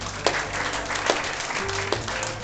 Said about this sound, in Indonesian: Berikan tepuk tangan dulu buat Tuhan.